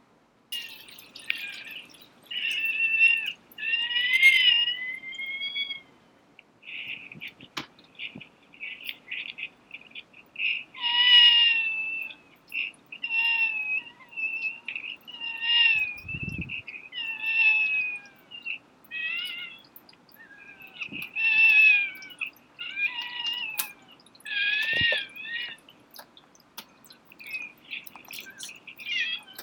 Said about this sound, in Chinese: 这是一种被称为“猫哭症”的婴儿哭声。法语的意思是“哭泣的猫”。这是一种罕见疾病，由于喉咙部位的发育异常，影响孩子的哭声。